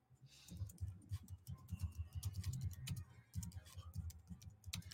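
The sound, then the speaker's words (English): Rapid, continuous typing of a social media post on a keyboard, with irregular clusters of key clicks and taps and no one speaking over it. “I'm just typing this in for uh, Instagram.”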